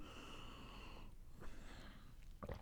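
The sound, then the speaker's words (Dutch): A quiet sip of water: a soft slurp and swallow, then a short breath at the end, with no talking and only faint background hiss. “ik neem even een slokje water.”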